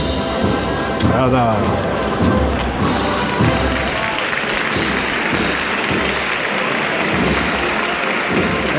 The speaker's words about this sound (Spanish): Ahí está el aplauso que despide a la esperanza de Triana.